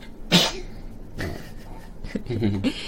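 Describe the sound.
A single sharp sneeze bursts out near the start, followed by softer voiced sounds and a bit of murmured talking afterward.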